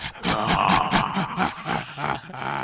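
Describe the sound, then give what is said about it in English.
A voice imitates a lion's growling breath, a loud, rough, rumbling snarl held for a few seconds with pulsing throaty texture, continuous. “I want to breathe like fire, like lion's breath.”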